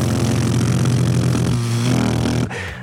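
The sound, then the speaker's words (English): A loud electric hand dryer blasts steadily with a roaring, motor-driven whoosh and low humming undertone, then cuts down sharply near the end. No one speaks. “But if I do have to use a hand dryer, I'd rather that I can just hold them further away and not hear.”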